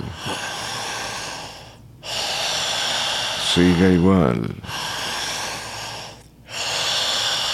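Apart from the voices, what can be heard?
deep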